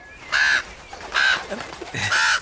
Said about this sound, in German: Was ist denn mit dem Raben? Ach, der will nur spielen. Stimmt's? Oder hast du uns etwas zu sagen? Spielen? Ja, Raben haben einen sehr ausgeprägten Spieltrieb.